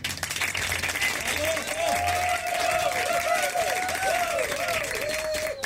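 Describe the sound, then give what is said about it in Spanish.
Steady applause from a group, dense rapid clapping that holds at an even loudness for several seconds, with whistle-like tones and voices blended into the crowd noise. “Fue un fuerte abrazo y unas, unas, unas palmas.”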